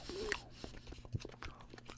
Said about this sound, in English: So, I'm going to give these a chew.